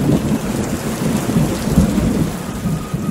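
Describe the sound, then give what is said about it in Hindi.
Heavy rain pours down from black clouds in a steady, dense hiss while deep thunder rumbles continuously underneath, loud and unbroken for the whole stretch, with no voices. “आखिर एक दिन काले काले बादल आसमान पर घिराए और छाजों पानी बरसने लगा”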